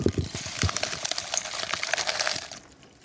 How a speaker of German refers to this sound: Das Erste, was man halt tut, bevor man sich so ein kleines Kakaoritual gönnt, ist die Banderole entfernen dann den Kakao innerhalb des Pergaminpapiers so sanft zu zerdrücken und dann füllt man die sich öffnende Pergaminumhüllung in ein Gefäß.